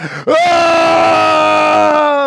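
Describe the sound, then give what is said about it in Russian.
A single loud voice imitates the long, sustained scream of someone on a roller coaster. The steady cry holds for about two seconds after a brief intake of breath. “Так это приятный крик.”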